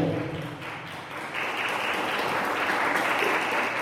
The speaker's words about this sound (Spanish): Dale un aplauso al Señor. Él es digno de recibir toda la gloria.